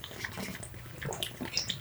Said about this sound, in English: I'm gonna I'm gonna use that cap full of water there.